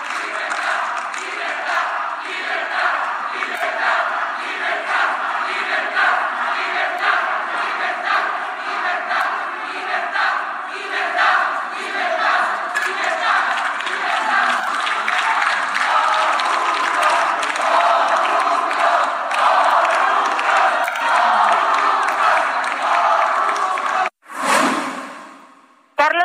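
PAN legislators shouting and chanting slogans together in the plenary hall of the Palacio Legislativo de San Lázaro, loud, reverberant and continuous for about 24 seconds before cutting off abruptly.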